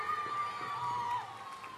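A crowd cheers and applauds, a dense, steady roar of clapping and shouting voices with a sustained high whoop riding over it, fading slightly toward the end.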